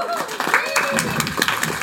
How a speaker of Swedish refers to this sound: En applåd till er.